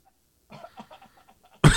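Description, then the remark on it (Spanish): A strained attempt at coughing: a run of small, choked throaty noises, then one sudden loud, harsh burst of breath close to the mic at the very end. No one speaks. “Respira. Respira. Tose, tose. Tose, a ver.”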